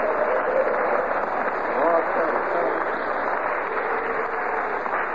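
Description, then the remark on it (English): A large live crowd at Princeton, recorded on stage, roars and claps steadily, a dense wall of cheering and applause that holds at a fairly loud, even level for the whole stretch, with no single voice standing out. “That's the crowd at Princeton.”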